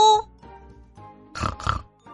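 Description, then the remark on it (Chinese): Two quick, loud pig oinks in a row, two pigs answering a greeting from a duck riding past on a bicycle; rough and nasal grunts following a brief faint voice at the start, then quiet afterward. “猪回应了一声，可是他们心里想：“ 嗯，鸭子真爱出风头。”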